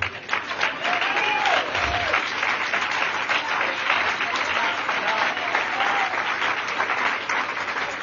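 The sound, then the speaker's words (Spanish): Steady, dense audience applause runs the full length, a continuous crackle of many hands clapping at an even loudness, with faint murmurs of voices mixed underneath. “Gracias por ese aplauso que tiene triple.”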